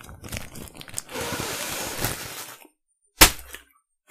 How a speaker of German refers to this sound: Ich würde einfach einmal wie meine Oma die Tüte zerplatzen lassen.